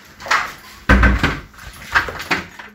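A door shuts with a solid thump, then a few small metallic clicks and rattles follow as a man turns the key to lock it. No one speaks.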